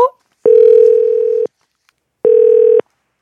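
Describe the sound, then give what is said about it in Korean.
A telephone ringback tone sounds twice as the radio show Lee Eun-ji's Gayo Gwangjang calls a listener: a steady, fairly loud electronic buzz for about a second, a brief pause, then a shorter second ring, with no voices. “궁금한데 전화 한번 걸어보자요.”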